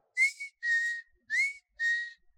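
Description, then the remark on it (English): A person whistles four short, clear notes in an alternating pattern, imitating a bird's reply to their whistling. Each note is bright, with brief pauses between them and no talking. “I stopped and I went, and the bird replied,”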